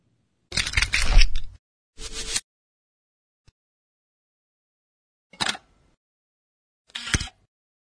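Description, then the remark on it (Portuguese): A short video intro sting (vignette) built from sharp, camera-shutter-like clicks and noisy bursts: a longer cluster, a quick snap, then two more spaced bursts. Fairly loud, no voices. “Te encontro depois da vinheta.”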